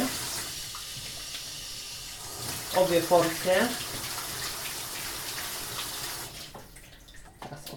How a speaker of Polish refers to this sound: I teraz starannie muszę wypłukać mięso, które trafi do rosołu. Mięso oczywiście należy wypłukać bardzo starannie. Najpierw w zimnej, później w ciepłej i później z powrotem w zimnej wody.